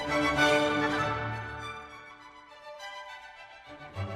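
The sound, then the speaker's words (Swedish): A short passage of classical orchestral music by the composer Antonio Salieri, with rich, sustained string-like chords that soften toward the middle before a fuller swell at the end. No one speaks over it. “Han gör musik som låter ungefär så här.”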